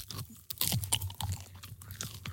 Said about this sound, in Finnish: Tuotteen syöminen kuulostaa tältä.